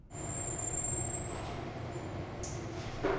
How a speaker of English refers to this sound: I talked to the folks who run the marmoset colony about these curious little creatures that sound like this